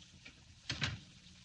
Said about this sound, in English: Go on. Close the door behind you.